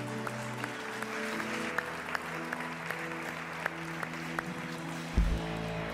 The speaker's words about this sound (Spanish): Porque no le das un fuerte aplauso al Señor ahí donde estás?